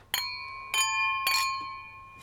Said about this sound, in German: Ja, chin, chin. Anstoßen.